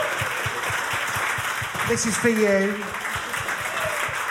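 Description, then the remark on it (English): An audience applauds steadily, a dense wash of many hands clapping that fills the whole clip, while a voice speaks briefly over it. “Round of applause for, for space.”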